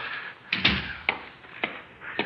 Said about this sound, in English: Close the door.